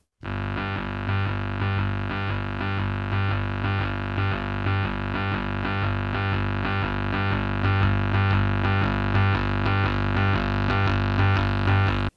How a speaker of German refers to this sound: Nun, das hört sich doch ganz unheimlich stupide nach so Synthesizer-Gebrumsel an, wie man es dann auch die nächsten 50 Jahre sehr gerne gehört hat, weil es auch wirklich gut eingroovt sich.